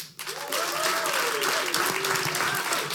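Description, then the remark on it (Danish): An audience at a comedy venue in Jutland, Denmark, breaks into steady applause to welcome comedian Lasse Remmer as the first guest: loud, dense clapping that swells in after a brief quiet start and holds for a few seconds, with a faint voice audible underneath. “Giv en kæmpe stor til Lasse Remmer.”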